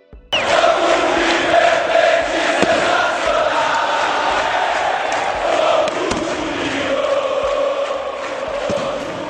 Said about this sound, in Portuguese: é uma música que, eu, que me ajudou a escolher o Vasco de 97 e 98, que é aquela música que a torcida do Vasco canta, que é eu vou pegar só uma parte dela